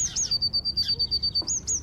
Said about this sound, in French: Alors ça, c'est la mésange charbonnière.